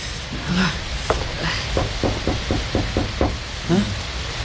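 A series of sharp knocks on a house door with no doorbell, about eight raps in an uneven rhythm, clear against a low background rumble, with brief murmured voice sounds at the start and end.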